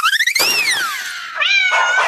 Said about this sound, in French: il a entendu le chat d'abord